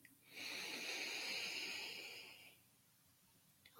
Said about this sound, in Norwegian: Puster dypt inn